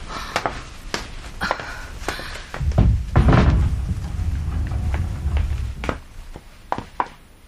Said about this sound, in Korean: 미닫이 문을 열자 보키의 방이 나왔다.